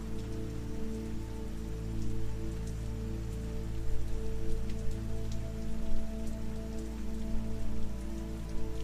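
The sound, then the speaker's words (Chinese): Steady, soft rush of flowing stream water with birdsong and a breeze, scattered faint ticks and splashes, over a low sustained humming drone; no voices. “此刻的你，在乎的就只有耳边的溪水、鸟鸣和清风。”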